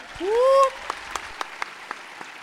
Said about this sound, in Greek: οπότε δώστε ένα χειροκρότημα και για μένα.